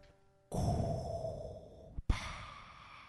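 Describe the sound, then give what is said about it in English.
A voice imitates Darth Vader's heavy, rasping respirator breathing: one long hissing inhale-exhale, a brief catch, then another breathy rush, fairly loud with a mechanical, masked quality. “Is is that supposed to be Darth Vader?”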